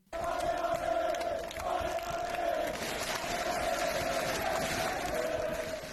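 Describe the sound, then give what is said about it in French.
A large crowd of Toulouse FC football supporters chants and roars continuously at the stadium as the players' bus arrives at 13:20 on a cloudy Saturday afternoon before a match against Clermont, a dense wall of voices with a sustained sung tone running through it, loud and steady throughout. “Chaud comme la braise et faute de pouvoir mettre l'ambiance en tribune, les supporters toulousains ont tout donné pour booster leur équipe avant le début de la rencontre.”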